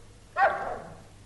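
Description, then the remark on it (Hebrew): A single short dog bark from a dog named Bobby rings out, sharp at the start and trailing off quickly, with no other sounds or voices around it. “איזה כלב טוב אתה.”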